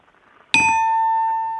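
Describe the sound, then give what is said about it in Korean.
A single bell is struck once on a phone-in show after a caller's crow impression, signalling a failed attempt, ringing out loud with a bright metallic tone that sustains and slowly fades, heard alone after a brief quiet moment. “까마귀 하나 가지고 딩동댕하기 어려운데 예.”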